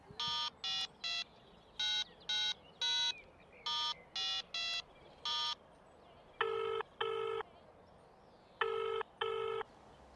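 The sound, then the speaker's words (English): A string of about a dozen quick touch-tone beeps as a number is dialed, then two paired rings from the phone line, clear with no voices. “I wonder if he's still got the same number. I guess there's only one way to find out.”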